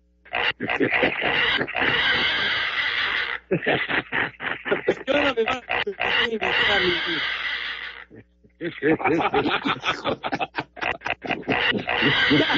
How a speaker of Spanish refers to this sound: Pues, no estás escuchando que ya se está quejando. Ya es un ataque de risa. Ya, de gritos. Ya. Escúchalo. Ya pegó de gritos,